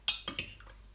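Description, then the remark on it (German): A tablespoon scoops hot water out of a cup, knocking against the rim in three quick, bright clinks, with a soft scrape between them, then quiet. “So, jetzt habe ich hier Wasser in so eine Tasse gefüllt und jetzt muss ich drei Esslöffel heißes Wasser daraus löffeln.”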